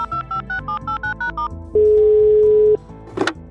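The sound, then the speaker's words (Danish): A rapid series of about nine short dialing beeps as a phone call is placed, then a single long steady ringing tone, followed by a brief clicking pickup sound. Clear, with no talking. “i min tophemmelige telefonbog har jeg nummeret på den helt rigtige, der kan svare på Magnus' spørgsmål”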